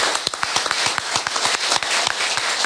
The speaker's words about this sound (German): ja, Level Plattis, vielen Dank, wunderschön. Einen großen Applaus.